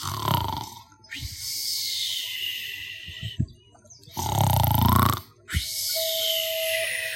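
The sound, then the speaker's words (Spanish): A voice imitates a little monkey snoring as it sleeps in the daytime on a soft bed of leaves on the jungle floor: two loud cycles, each a rough, rumbling inhale followed by a long, airy, whistling exhale, with no speech. “Estaba tan profundamente dormido soñando quién sabe con qué”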